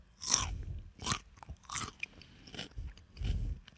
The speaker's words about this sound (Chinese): 那请容许我在这里吃一片黄瓜。然后顺便也给你们听一下 ASMR 啦